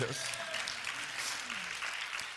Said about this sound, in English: We could call, yeah, go ahead and applaud that if you want to.